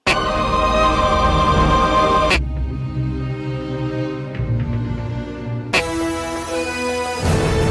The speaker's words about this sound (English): Uh, I assume that quack in between them all is the breaker break between the sounds because uh, all video game music sounds the same these days. Uh, so there are four video game themes there, um, pretty much from the menus.